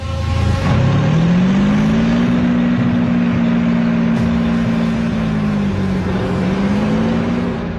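The engine of a heavy German armored vehicle approaching the British troops at Sword Beach drones loudly and continuously, its low rumbling pitch climbing early on and then holding steady with slight wavering. No voices are heard.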